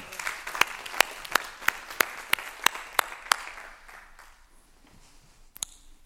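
A brief round of audience applause, a soft wash of clapping with one steady series of about nine sharp, evenly spaced claps standing out, then fading away after a few seconds.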